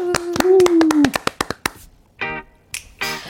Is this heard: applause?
yes